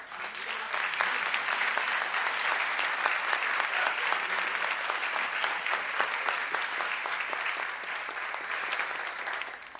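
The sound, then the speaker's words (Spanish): Steady, dense applause from an audience welcoming the musicians of a concert, many hands clapping continuously for about ten seconds at a fairly even loudness, with no talking over it. “Entonces, preparad vuestras manos para recibir con un fuerte batir de palmas a los músicos primeramente,”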